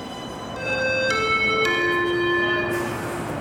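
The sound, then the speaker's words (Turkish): A train getting ready to leave the station, with a sustained ringing bell-like chime over a steady low rumble and a couple of sharp clanks, fairly close and moderately loud, with no voices. “The train is about to leave the station.”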